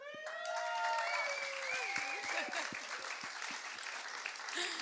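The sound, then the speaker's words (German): An audience claps steadily for several seconds, welcoming three people onto a stage for an interview, a dense, bright patter of many hands that stays fairly even in loudness, with faint voices and whistles rising through it. “Danke für den Applaus.”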